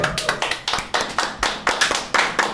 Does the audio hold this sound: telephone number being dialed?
no